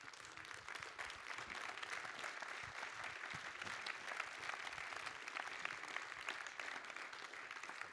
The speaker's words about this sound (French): Je demande donc d'applaudir chaleureusement M. Jean-Paul Kaufmann.